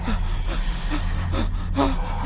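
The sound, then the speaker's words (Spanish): Rapid, heavy, agitated breathing with several ragged, gasping breaths in quick succession, fairly loud over a steady low rumble. “Su respiración estaba muy agitada y hasta se escuchaba doble.”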